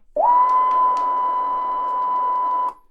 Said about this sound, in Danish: Det jeg synes kunne være sjovt, for eksempel, det vil jeg demonstrere nu, øhm, det er, at jeg tager en sinusplade, det vil sige en plade, der er en sinustrone på, der siger